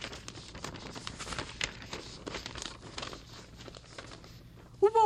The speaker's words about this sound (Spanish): Tenía las hojas de papel en blanco, pero le aburría verlas tan blancas, tan vacías, y las arrugó. Quedaron unas bolas de papel arrugado.